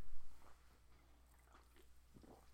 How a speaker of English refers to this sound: Excuse me while I sip this uh, Diet Coke here.